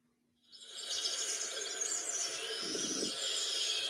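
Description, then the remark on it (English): After a moment of silence, a dense wash of bird noises starts up, a steady chorus of high chirping and twittering that continues without pause, with no one talking. “Not the bird noises.”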